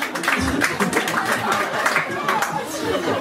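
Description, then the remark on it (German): A crowd claps steadily throughout, a dense patter of many hands mixed with murmuring voices and a few chuckles, fairly loud. “Ja, das ist Applaus wert.”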